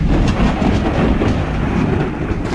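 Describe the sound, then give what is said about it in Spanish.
Heavy rainstorm pouring down on flooded streets in Valencia, Spain, on the evening of 3 May, with about 200 litres of rain fallen: a dense, unbroken roar with a deep rumbling undertone, loud and steady for the whole few seconds, with no voices. “Así sonaba la tormenta en la tarde-noche de ayer.”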